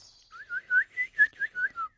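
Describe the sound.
A person whistles a quick, warbling run of about eight rising-and-falling notes in imitation of a songbird, fairly loud, with no talking.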